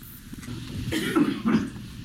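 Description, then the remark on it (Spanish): A man strains out two short, forced coughs in quick succession, the second a little sharper, at moderate loudness over a faint background hum with no talking, staged during a drill simulating the arrival of a coronavirus patient. “Ahí está desgañitándose el hombre, el pobre hombre, tratando de toser.”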